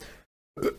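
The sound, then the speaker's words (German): A single short, sharp sneeze bursts out after a brief moment of silence, loud against a faint background hush, with no talking. “Äh, äh, Entschuldigung. Äh, Gesundheit.”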